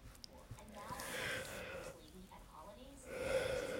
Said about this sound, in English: Oh, big yawn.